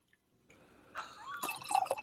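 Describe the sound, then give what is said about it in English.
A drink pours into a glass, a quiet trickle and splash with a rising gurgling tone as the glass fills, lasting about two seconds with no talking. “Um, you better pour. You better pour.”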